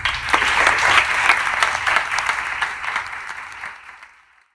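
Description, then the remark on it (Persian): An audience claps steadily, a dense wash of many hands that holds loud for a few seconds, then gradually thins and fades out toward the end, with no voices over it. “گرچه که نیستن ولی خواهش میکنم جانانه تشویقشون کنیم”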